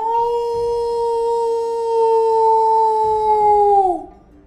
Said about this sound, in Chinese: 有些书上面有精美的插图，还有一些书会发出声音，像是有人在低声说话。Yes，又像是有动物的嚎叫。